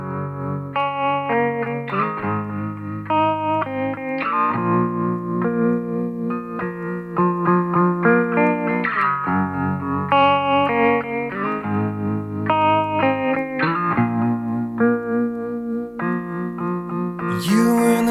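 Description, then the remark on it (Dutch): A post-grunge rock song by a British band, active mainly in the late 1990s, plays steadily, with layered, effects-heavy electric guitars, sustained chords and a full, loud mix throughout; no one talks over it. “Britse band vooral actief in de late jaren 90 En eh, ze horen bij de nasleep van de grunge-beweging.”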